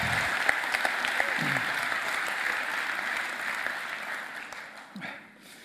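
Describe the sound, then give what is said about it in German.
A church audience gives sustained applause to a group, a dense steady patter of many hands clapping that gradually thins and fades toward the end, with a few faint voices mixed in. “Gebt ihnen einen richtigen Applaus.”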